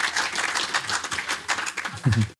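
An audience applauds, a dense, steady patter of many hands clapping at once that holds for about two seconds before a voice briefly cuts in as it fades.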